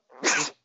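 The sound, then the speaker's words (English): A single sharp sneeze, fairly loud, with a short breathy intake leading into an explosive burst that cuts off quickly; no one talks during it. “sorry, I'm gonna sneeze, buddy.”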